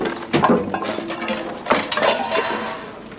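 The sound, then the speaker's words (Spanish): Utensils are thrown against the cloth curtain of a kitchen room by a figure moving behind it, making a few irregular clattering thumps and rustles in quick bursts, with a loud hit early on and another cluster midway, no voices. “Su silueta se mueve tras la cortina del cuarto arrojando utensilios contra la tela.”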